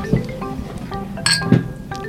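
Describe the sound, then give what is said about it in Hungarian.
Glasses clink together for a toast, a few bright ringing taps, the clearest pair landing in quick succession, with faint background noise underneath. “Na, Szerintem nagyon, kocincsunk. Igen, kocincsunk.”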